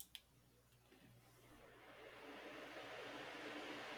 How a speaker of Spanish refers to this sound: A ver, tú dime si se escucha o no mi ventilador, ¿va?